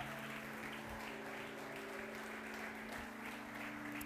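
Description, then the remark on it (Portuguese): An audience applauds steadily for about four seconds, a dense, even wash of clapping with a sustained low hum running underneath and no voices heard. “Se você crê nisso, aplauda bem forte a ele.”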